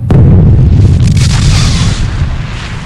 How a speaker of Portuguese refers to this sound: Quando ele explode, você sente aquele baque, você não esperava. Você é lançado para trás e cai no chão e vai derrapando, levando um monte de gente ali junto com você.